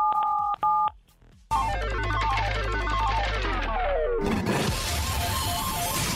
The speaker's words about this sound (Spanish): ¿estás listo para activar nuestra ruleta regaladora? Listo. Activa. Presiona 977.